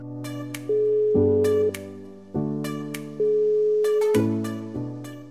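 An outgoing phone call ringing tone, heard as an unbroken string of bright electronic notes stepping up and down in a simple melody, moderately loud, with no voices.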